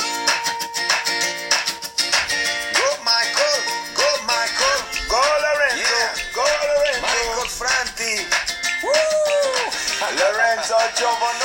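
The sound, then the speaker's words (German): A pop song with a steady, driving groove plays loudly and continuously, a sung lead vocal gliding over dense instrumentation and percussion, with no one talking over it. “Geiler Groove, oder?”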